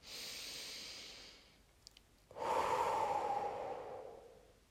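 One slow, deep breath: an airy inhale, a brief pause, then a longer, fuller exhale that rushes out and trails off. No talking.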